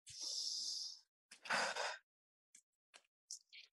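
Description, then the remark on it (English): Two long, deep breaths, a slow airy inhale followed by a heavier exhale, then a few short soft breaths trailing off into quiet. “Let me do a little few deep breathing.”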